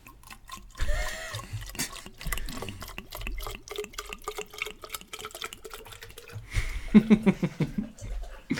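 A steady stream of urine splashes into toilet water, with irregular trickling and dripping sounds running throughout, moderately loud, briefly swelling near the end.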